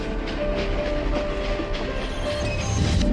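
A train rolls along the rails with a steady rumble and a rhythmic clickety-clack of wheels over track joints, a thin metallic squeal ringing faintly above it.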